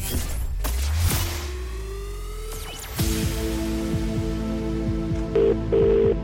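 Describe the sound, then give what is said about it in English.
Telephone tones from an outgoing call to a randomly chosen mobile number, with steady electronic beeps and short dial-like pulses sounding over a humming background near the end. No one speaks. “So we froze the lines at 3 p.m., and I am about to call one mobile number at random that has entered.”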